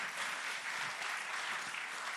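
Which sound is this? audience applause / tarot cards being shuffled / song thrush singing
audience applause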